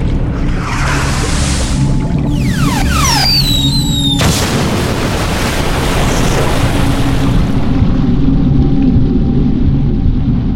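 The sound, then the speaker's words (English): The submersible Guardian 1 explodes: a heavy rumbling roar with whooshing, sliding whistles, then a sudden loud blast that gives way to a sustained, churning boom. No one speaks. “Guardian 1 vaporized in front of her eyes.”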